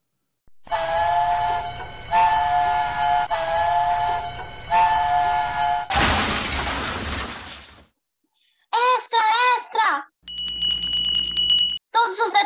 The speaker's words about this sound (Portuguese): Não podemos perdê-lo, pois logo virá o trem ao nosso destino.